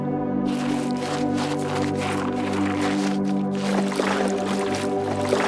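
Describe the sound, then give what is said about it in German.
A small wooden rowboat is pushed back into a lake in Japan; it scrapes and slides in, water sloshing and splashing up around the hull in a steady, fairly loud rush with a low droning rumble underneath. “Vorsicht, gleich schiebe ich das Boot zurück in den See.”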